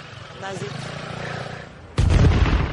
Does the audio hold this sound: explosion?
yes